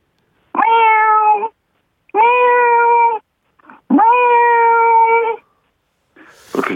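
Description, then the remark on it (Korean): A voice imitates a newborn kitten's cute meowing: three drawn-out, steady meows in a row, loud, with short pauses between and a brief squeak at the end. “아이가 태어난 거죠. 애교 아. 애교 고양이.”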